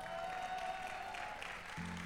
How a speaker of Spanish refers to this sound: Alguien le da un aplauso.